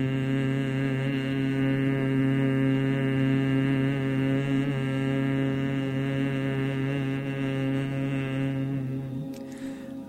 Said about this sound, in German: Dann atmet wieder schnarchend ein bis zum Herzen hinein. Und beim Ausatmen erzeugt wieder diesen Summenklang.